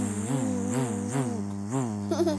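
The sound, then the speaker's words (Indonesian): A person hums a continuous buzzing drone, imitating a bee, with the pitch swelling up and down in a few wavy pulses for about two seconds, steady. “Hmm, gimana bunyinya Kak lebah?”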